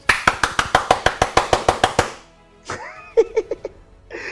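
audience clapping

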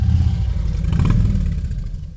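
harley-Davidson motorcycle engine revving

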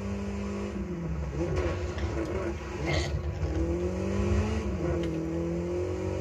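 car engine revving

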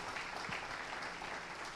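audience applause

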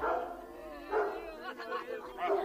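hunting dogs barking

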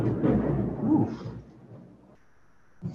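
thunder

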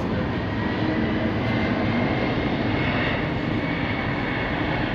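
airplane flying overhead

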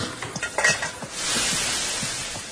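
cooking

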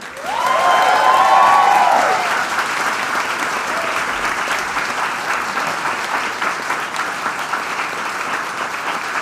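audience applause

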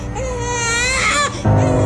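sick baby crying

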